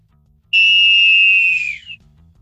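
A single long, shrill final referee's whistle blast, loud, holding steady for over a second before trailing off, with only a faint low hum underneath.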